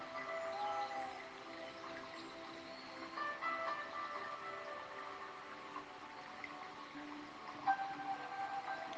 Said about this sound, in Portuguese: Ouça as ondas do mar fazendo seu movimento eterno de ida e volta.